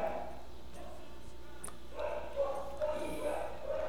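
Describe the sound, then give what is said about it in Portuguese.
A dog barks several times in a quick, uneven series, moderately loud, over a steady low background hum. “Esperar esse cachorro lazarento.”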